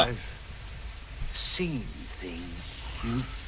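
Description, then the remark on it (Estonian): Steady rain hisses continuously, an even wash of falling drops, with a few brief murmured voices surfacing faintly over it. “vihma sajab.”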